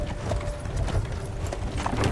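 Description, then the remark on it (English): Horse hooves clip-clop steadily as a wagon carrying two actors rolls along during recording on a film set, the rhythmic clops sitting over a constant low rumble of wheels; nobody speaks. “you're recording on with two actors who are riding on a wagon”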